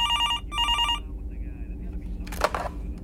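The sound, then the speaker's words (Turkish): A telephone rings in two quick electronic bursts, then falls silent, followed by a brief clatter like a handset being lifted, over a low background rumble. “Ta ki kaybolmadan önceki gece çalan telefon tekrar çalana kadar.”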